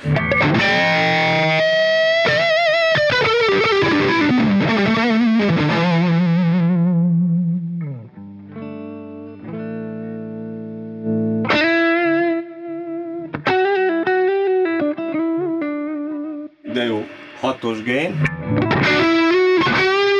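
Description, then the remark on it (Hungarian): An electric guitar plays through a tube amplifier with a clean, rich, high-quality tone: ringing chords, then a long downward-sliding phrase, a brief quieter passage and more bright, sustained notes, loud. “Ugye az, ez egy viszonylag azt egy ilyen csöves erősítő csinálja, ilyen nagyon tiszta, jó minőségű.”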